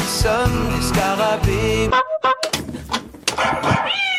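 A loud dog-bark sound effect used as a game-show buzzer in a quiz about French singers rings out in several quick, harsh bursts, then gives way to voices talking and lively background noise.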